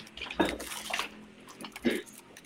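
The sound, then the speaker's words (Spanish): Water pours in a few short, splashy bursts with brief gaps between them, at a moderate volume. “Dejen voy por agüita, espérenme.”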